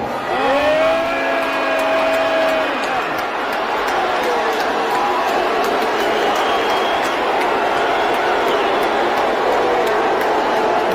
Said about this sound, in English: this is a Dave Chappelle crowd, and they like Dave, but they don't like Elon. You can hear him booing. It's pretty loud.